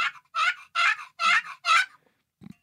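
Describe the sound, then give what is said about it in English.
A wooden turkey box call scraped out five raspy, high yelps in an even rhythm, loud and without talk, ending with a short low knock. “Like if it sounds like it's scratchy, like the box call I have is not tuned on the left side.”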